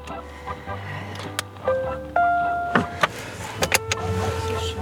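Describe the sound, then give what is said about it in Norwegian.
Inside a car driving into a quiet residential neighborhood: a steady low engine rumble throughout, with rising electric motor whines, like a window moving, and a few sharp clicks and knocks. No one speaks. “Vi kjører inn i et rolig villastrøk. Bare fem minutter i bil fra der Grete sjøl bor.”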